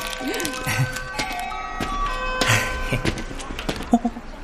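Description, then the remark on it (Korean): A school bell chime plays a steady electronic melody of sustained ringing tones, moderately loud, with scattered voices and occasional knocks in the background. “아유, 종쳤다.”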